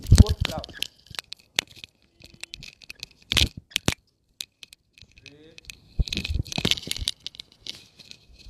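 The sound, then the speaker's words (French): A phone used with earphones is fumbled and nearly dropped to the floor before being caught: irregular bursts of loud scraping, knocking and crinkly handling noise, with a heavy cluster at the start, a sharp clack midway and another flurry near the end. “Le téléphone a failli se péter la gueule par terre.”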